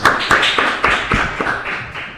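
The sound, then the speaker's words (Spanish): Studio applause for visiting guest Santiago Cafiero: a steady burst of many hands clapping, dense and fairly loud, with sharper individual claps standing out in an irregular rhythm throughout, no voices over it. “Continuamos en el mañana, sí, siendo las 11.06 minutos y tenemos con nosotros un aplauso grande para el señor Santiago Cafiero que vino a visitarnos.”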